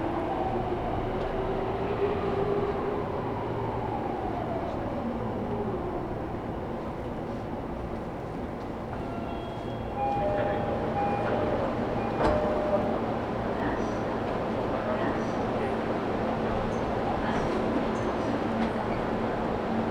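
A Tokyo Metro subway train on the Iidabashi to Nishi-Funabashi route runs steadily between Kudanshita and Takebashi stations, a loud continuous low rumble and rattle with a descending motor whine early on and a few brief high squeals midway.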